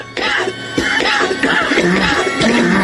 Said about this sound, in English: Again, people, this is the White House putting this out. They're trying to scare people with this commercial showing whoever this demon is coughing.